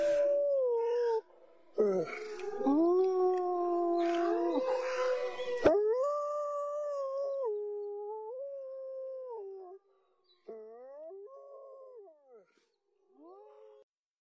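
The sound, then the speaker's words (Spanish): A chorus of wolves howls, several long wavering voices overlapping loudly at first, then thinning to one or two drawn-out howls that rise and fall before trailing off. “Aún siento los lobos aullando.”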